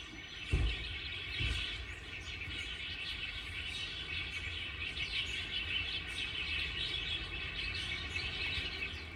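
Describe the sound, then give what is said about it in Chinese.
A dense chorus of many small birds chirping and tweeting at once in a group of large trees by the roadside outside Luodong Sports Park in Yilan, in the early morning: a continuous overlapping twitter of high, busy calls with a couple of low thumps near the start and no talking. “罗东运动公园的清早的时候，早上的时候呢，运动公园外面哦，路边哦，并不是在运动公园的里面，而是在它比较靠外环的地方，一群大树底下所听到，整个满树上都是小鸟的声音。”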